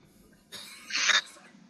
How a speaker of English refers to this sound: He's got a coughing fit all of a sudden. He's been smoking a lot,